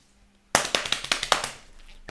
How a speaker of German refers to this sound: Auf meiner, auf meiner Fahrradhose klatscht es sich nicht so gut. Ich habe es gerade gehört, war, war ein bisschen lame, ne?